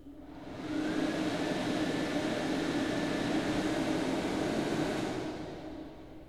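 An electric dryer in a bathroom switches on and blows a steady, loud rush of air with a low motor hum for several seconds, then winds down and fades out.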